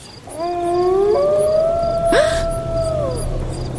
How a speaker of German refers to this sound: Das müssen Wölfe sein. Aber. Aber wir hatten doch schon so lange keine mehr in dieser Gegend. Auf jeden Fall nicht so nah am Dorf. So mitten im Sommer.